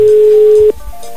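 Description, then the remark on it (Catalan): A telephone busy signal: a single steady, mid-pitched electronic tone holds clearly for most of a second, then cuts off abruptly, leaving faint line hiss and soft background noise. “Està ocupada.”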